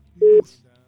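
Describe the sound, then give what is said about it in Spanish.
A single short, steady telephone tone sounds loud for a moment as a phone call is being placed, then cuts off, leaving faint background murmur. “¿Le escuchas, verdad, Ido, ya la, el teléfono?”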